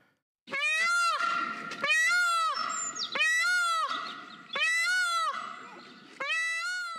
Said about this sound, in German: Was war das? Das war der markerschütternde Schrei eines Pfaus.